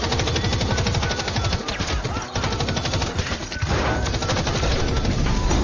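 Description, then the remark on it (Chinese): Sustained Gatling machine gun fire from a force of terrorists storming a parliament building, a dense rapid stream of loud shots running nearly nonstop, with a brief dip in intensity midway before the barrage resumes at full volume. “上百名恐怖分子一拥而入，当然有前来护驾的宝龙一族，但是被罗伯斯的加特林大军彻底消灭。”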